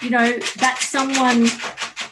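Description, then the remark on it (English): A dog scratches at the plastic cone collar on its neck, making quick, rasping scrapes in short repeated bursts that run underneath a person talking. “that's my dog is scratching his um, cone on his neck.”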